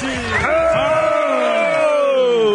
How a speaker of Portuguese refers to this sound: Muitos aplausos para o Coronel José Vicente.